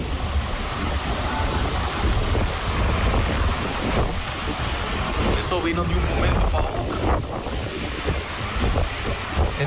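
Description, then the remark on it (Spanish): Strong wind and rain roar steadily throughout, a dense hissing rush with low buffeting rumble against the microphone, while someone speaks over the storm. “Esa es una brisa con lluvia”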